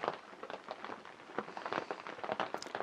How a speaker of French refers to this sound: je pense que tu l'entends. Il y a la pluie qui euh, martèle le toit de la cabane. Et c'est pas désagréable. C'est pas désagréable d'être là, sous la couette, au chaud, et de regarder d'écouter tomber la pluie.